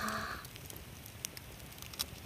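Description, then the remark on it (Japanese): A quiet, crackling campfire beside the clear Choshi River, with a few sharp pops scattered over a low, steady background hiss, with no one talking. “今パチパチとハゼるキャンプファイヤーを見ています”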